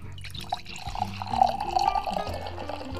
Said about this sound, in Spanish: saben que nos estamos sirviendo un delicioso vinito tinto